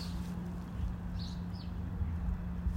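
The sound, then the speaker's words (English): A couple of faint, brief bird chirps over a steady low hum of outdoor background noise on a back porch patio on a beautiful day, with no one talking. “You might hear the birds chirping in the background on my back porch patio, so.”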